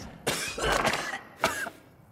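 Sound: dry cough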